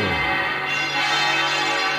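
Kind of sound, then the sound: signal or alarm, basilica church bells ringing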